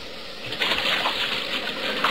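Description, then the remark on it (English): Water rushes and splashes steadily as a boat drives up onto an island beach, a dense wash of churning surf with no voices. “Hold on, we're going to hit the beach.”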